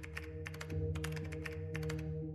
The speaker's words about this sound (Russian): Девушка открыла паспорт и принялась стучать по клавиатуре.